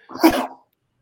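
A single sharp sneeze bursts out, loud and breathy, lasting about half a second before quiet returns. No one talks over it.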